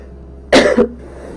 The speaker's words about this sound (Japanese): ごめんなさいちょっと咳します